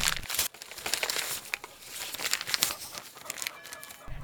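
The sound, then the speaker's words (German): Crisp crinkling and rustling of a cold, crumpled paper note being slowly and carefully unfolded, with irregular crackles and soft snaps over about four seconds, no voices. “Vorsichtig falte ich den Zettel auseinander.”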